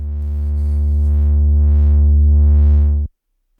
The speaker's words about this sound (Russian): Давайте посмотрим, что можно сделать с э, сигналом, когда у вас есть просто какая-то форма волны, возможность срезать у этой волны верхние частоты и менять громкость. Например, возьмем простой треугольник и поиграемся фильтром.